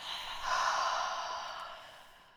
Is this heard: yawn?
yes